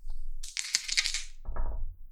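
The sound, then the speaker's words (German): Two small six-sided dice clatter and rattle across a hard surface in a quick, bright burst, then a lower rolling tumble settles them, with no talking. “Und du würfelst bitte mit 2D6.”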